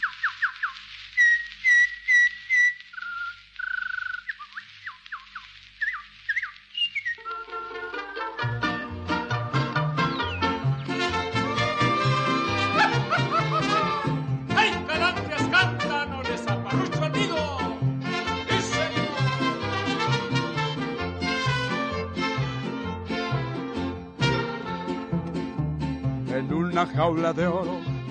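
A ranchera song plays, opening with a few seconds of high, bird-like whistled calls before a full band comes in loud and steady, carrying on with a bouncy rhythm to the end.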